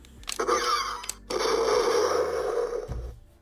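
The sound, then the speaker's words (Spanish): A toy blaster rifle plays its electronic sound effect after a magazine is removed, the sound changing with each magazine taken out: a short buzzing burst, a brief pause, then a longer, louder whirring blast that cuts off sharply. “Que cargas y si lo pones en otra parte que tenga sensor, se escucha que el cargador. Quitas uno y cambia de sonido.”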